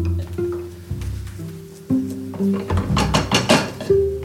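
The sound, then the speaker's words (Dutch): A spoon scrapes and taps against plates in a quick, irregular run of soft clinks and wet squishes as stirred sauerkraut is served onto plates, over a steady low hum, with no one talking. “Ja, ik ga dit gewoon alvast op de borden.”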